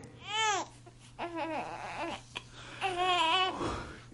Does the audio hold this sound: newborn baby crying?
yes